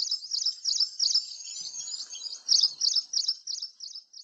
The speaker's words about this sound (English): what I notice is the distinctive sound of the birds there in Bombay, and then I try to listen to the sounds of the birds in New York. And I have to say, like I feel the birds in New York are much more subdued compared to the birds of Bombay.